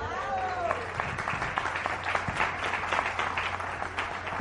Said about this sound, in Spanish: ¿Ya les dieron un aplauso por eso, por ser abuelos?